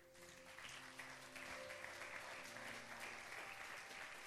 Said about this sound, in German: Ja, lass uns Gott einen Applaus geben dafür.